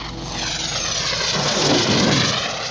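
An airplane engine drones steadily overhead, a broad continuous roar that swells slightly toward the middle before holding level. No one speaks.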